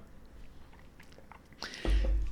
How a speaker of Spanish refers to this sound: Digo, lo hacía de manera natural eh, desde que inició el proyecto, pero esto de primero el sorbito para luego iniciar, no me acuerdo en qué momento.